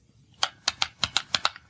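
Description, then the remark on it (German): A wind-up toy bird, with another bird strapped to its belly, being turned, producing a series of sharp mechanical clicks at a steady, slightly uneven pace, fairly quiet with no voices. “Hörst du es knacken?”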